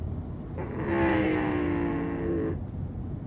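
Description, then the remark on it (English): A pack of racing cars roars past on lap 104 of a race, a dense high-pitched whine over rumbling noise for about two seconds, then cuts off abruptly, leaving a low background hum. “Oh, we got a pack of cars right now.”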